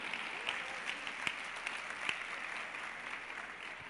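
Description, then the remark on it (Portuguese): An audience claps steadily for about four seconds, a dense, even patter of many hands with a few sharper individual claps popping out, and no one speaking over it. “Vamos embora, pode aplaudir.”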